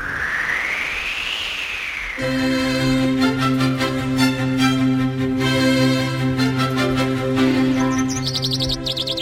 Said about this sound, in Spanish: Oh, qué de pájaro, esto parece la presentación del coro de la viña, los pájaros. Qué bonito era ese coro. Oh, qué maravilla.